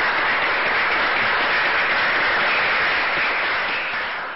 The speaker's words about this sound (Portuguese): É o Brasil. É o Brasil. Uma salva de palmas para o Brasil.